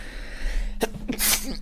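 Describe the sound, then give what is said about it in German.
A single sneeze: a brief sharp intake of breath, then a loud, hissing burst of air, over a low background hum. “Gesundheit.”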